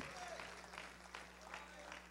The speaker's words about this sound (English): Let's clap our hands and thank God for it. Come on, let's let's give him a little bit of a resounding praise for it.